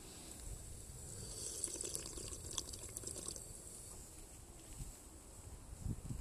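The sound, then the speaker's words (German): Water pours steadily from a water dispenser into a cup for several seconds, a continuous splashing stream with a slight gurgle near the end, no talking. “Ich nehme mal einen Schluck hier aus diesem Wasserspender, finde ich sehr toll.”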